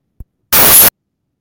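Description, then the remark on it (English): A short, loud burst of harsh crackling static on a caller's phone line, lasting under half a second, preceded by a faint low thump and followed by silence. “Unfortunately, there's some static on your line.”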